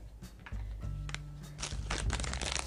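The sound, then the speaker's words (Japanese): Crinkly rustling of a plastic zip-lock bag holding embroidery thread, handled while taking out more thread during asanoha-pattern stitching, with irregular crackling bursts that grow busier and louder toward the end, no voices present. “なのでガサガサするかと思います”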